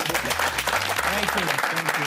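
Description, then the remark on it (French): An audience applauds steadily, a dense wash of many hands clapping for about two seconds, with low humming tones and murmuring voices faintly underneath. “Applaudissements encore une fois.”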